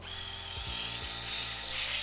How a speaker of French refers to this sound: Et tu sais pourquoi Parce que j'utilise le même rasoir. C'est un rasoir électrique que ma mère m'avait offert pour mes 18 ans. J'en ai 40, je te laisse faire le calcul, ça fait 22 ans que j'ai ce rasoir